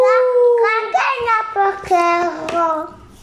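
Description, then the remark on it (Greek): A high, wavering voice mimics a spooky ghost sound in a few drawn-out, sliding hoots, loud, with faint tapping or clapping underneath. “Θα μπορέσει του λέει να κάνεις ε, το ghost sound again. Τον ήχο δηλαδή των φαντασμάτων.”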